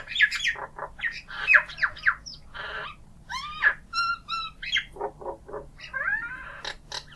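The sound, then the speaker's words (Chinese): An Indian myna calling in a busy, varied stream of squawks, gurgles, clicks and rising whistles, loud and continuous with no pauses, mixing harsh chatter with clearer tonal notes. “还有一种 myna 呢，是跟它体型是基本上是没有什么差别，就是那种小鸟，但是呢，它是褐色的，它的喙也是黄色的，眼圈呢也有黄色，但是呢，它的羽毛呢是深褐色，随后有一些香的黑色的边，那个呢叫 Indian myna，这个 myna 的拼写不一样嘛，但是这个呢，中文应该是叫印度八哥吧。”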